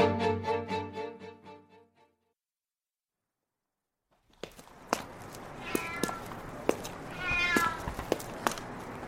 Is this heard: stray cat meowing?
yes